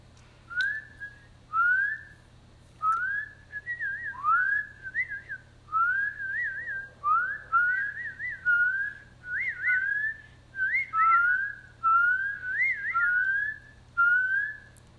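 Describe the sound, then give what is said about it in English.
A person whistles a series of short, rising chirps, about a dozen in a steady rhythm, imitating the peeping call of a spring peeper frog, fairly loud over a low background hum. “For someone who's never heard the sound of a spring peeper, let's see if we can do a close replication.”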